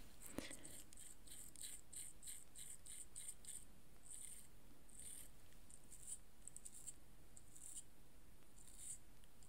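Soft, rapid bristle strokes from a brow brush sweeping over eyebrows one final time, a steady run of short scratchy swishes, quiet, with no talking.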